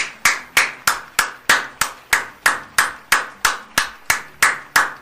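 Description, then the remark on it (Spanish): A single pair of hands clapping in applause for Guatemala's football team drawing with Mexico, steadily, about three sharp, crisp claps per second, each fading quickly, with no voices over it. “Un aplauso a mi gran guate.”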